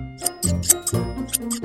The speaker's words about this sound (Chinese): 嗯，爸爸，我害怕。大剪刀的声音真是把我吓坏了。